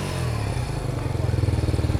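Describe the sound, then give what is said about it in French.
A small motorcycle engine idles, its low putter growing into a quick, rhythmic pulsing chug toward the end, with a faint clattery edge. “Moi j'écoute le son de la moto.”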